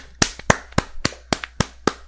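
Steady, evenly spaced hand claps, around seven sharp crisp slaps in two seconds, with a few softer claps between them, like a small, sparse round of applause with no talking.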